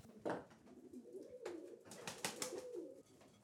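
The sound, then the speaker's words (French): Pigeons coo softly and repeatedly, low throaty warbles overlapping in a steady murmur, with occasional brief rustles or wing flutters. “Et tant qu'elle vient, elle, leur parle et puis les pigeons se calment et tout.”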